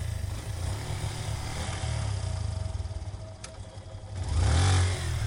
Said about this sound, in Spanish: Encendí la moto y tomé ruta hacia la montaña.